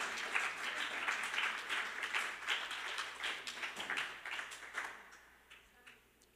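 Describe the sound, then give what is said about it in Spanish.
An audience bursts into sustained applause, many hands clapping in a dense, bright wash that holds steady for several seconds and then tapers off into near quiet, with no voices over it. The applause is given to the "King of Kings and Lord of Lords" during a sermon. “Dale ese aplauso fuerte al Rey de Reyes y Señor de Señores.”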